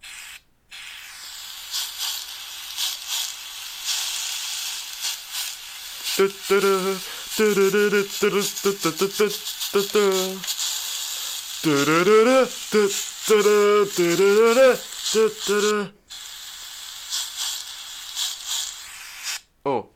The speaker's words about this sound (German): wo acht Fleischpflanzen in einer Pfanne sind und da ist so ein Typ mit so einem Kochlöffel und der drückt immer so drauf